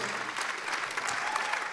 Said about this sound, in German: Lass uns ihnen einen großen Applaus geben im ICF on the stage.